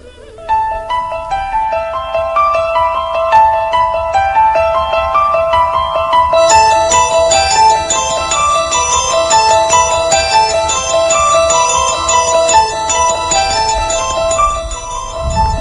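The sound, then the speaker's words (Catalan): Instrumental music with a bright, repeating piano theme, its notes ringing steadily and growing fuller partway through, played alone without any voices at a constant, fairly loud level. “Bé, jo crec que amb aquesta música que està sonant és fàcilment identificable, no la va composar ell, tothom, el, quasi tots els oients sabran per la transcendència que va tenir que estem escoltant eh, la primera part de,”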